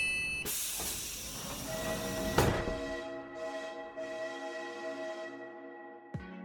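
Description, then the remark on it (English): A loud pneumatic hiss ends in a single sharp thud as the City Center Express train doors shut, then a steady humming motor whine rises with rhythmic hissing as the train pulls away. No one speaks. “Doors are now closing, so sit back, relax, and enjoy the ride.”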